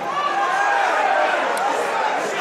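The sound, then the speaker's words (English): A large stadium crowd at a Wigan Warriors match bays and shouts for obstruction in a sustained, loud roar of many voices, holding steady throughout with no single voice standing out, while the referee is not interested. “Crowd baying for obstruction, but the ref not interested.”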